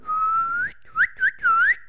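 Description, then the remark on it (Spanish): Someone whistles in mock disapproval, like a jeering crowd: one long tone rising at the end, then three short swooping whistles in quick succession, fairly loud with no talking. “todo el mundo chifla”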